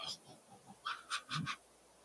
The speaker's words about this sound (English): I hear a dog. I hear a dog.